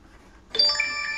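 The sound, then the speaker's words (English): A small bell rings once with a bright, sudden strike, its clear metallic tone sustaining and shimmering after a moment of near silence. No one speaks. “he had a bell. And he just rang it.”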